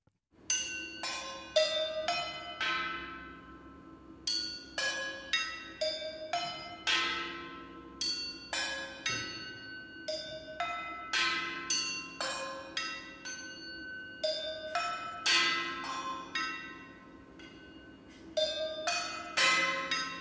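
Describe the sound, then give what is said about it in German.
Metal cooking pots struck as music in a lively rhythmic pattern, each hit ringing out with a bright, bell-like clang and short decay, played steadily and fairly loud with no voices. “Als Inspiration Inspiration hier noch eine Kochtopfmusik”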